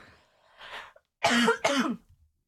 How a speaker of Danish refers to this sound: Nu skal jeg lige hoste.